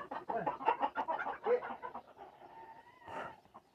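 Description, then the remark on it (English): Two chickens, one of them white, cluck and squawk in a flurry as they're shooed out of a corner, with a dog panting and moving about; the commotion is busy at first, then thins out before a brief sharp burst. “Uh, yeah, shoo the fucking chicken out of there.”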